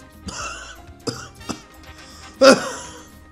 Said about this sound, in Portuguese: Tá merda, mano! me dá até tosse!